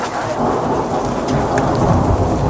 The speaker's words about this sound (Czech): Strhl se pořádný liák, po okolních kopcích skáčou desítky blesků